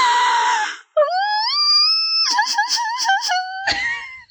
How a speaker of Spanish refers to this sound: De alguna forma siempre termino gritando cuando Cristian habla con Victoria. No sé cómo, pero siempre termino haciéndolo.